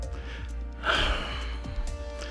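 A single deep, audible breath taken close to the microphone, a brief airy inhale over a low steady background hum, with no talking.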